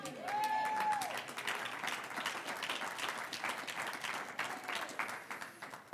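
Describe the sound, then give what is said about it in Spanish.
A church audience breaks into sustained applause for the Lord, many hands clapping in a dense, steady wash with some cheering voices rising briefly above it. “Dele un aplauso al Señor si usted muerto.”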